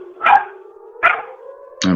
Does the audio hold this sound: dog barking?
yes